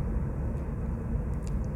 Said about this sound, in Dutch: Dat is even het nadeel van podcast opnemen in de auto. En ik vertrouw er dan maar op dat ondanks de, dat de kwaliteit van het geluid misschien wat minder is, dat het de inhoud het belangrijkste is.